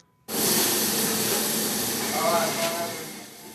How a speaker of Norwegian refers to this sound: Tynne hamburgere freser i pannen på kjøkkenet.